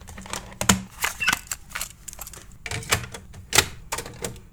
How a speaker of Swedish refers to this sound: Trots att vi förmodligen hör ljudet av en ätande fransk bulldog i bakgrunden